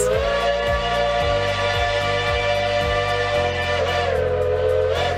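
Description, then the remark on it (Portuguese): A steam locomotive whistle sounds one long, loud, steady blast lasting the whole time, its rich tone laid over a rhythmic low chuffing from the engine, with no voices, on a steam train trip from São Lourenço to Soledade de Minas. “Os três melhores programas para se fazer em São Lourenço são a Rota do Café Especial pelas fazendas da região, o passeio panorâmico de balão e empreender uma viagem no tempo, embarcando em uma maria fumaça até Soledade de Minas.”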